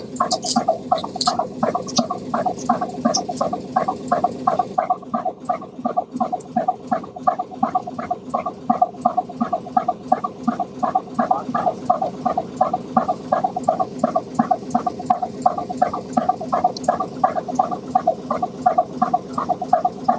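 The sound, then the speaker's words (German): An engine runs steadily for the whole stretch, a loud, even chugging made of rapid regular pulses over a low rumble, with no voices. “Jetzt zeichnen wir einfach noch ein bisschen Maschine auf für alle, die einfach so gerne das hören mögen.”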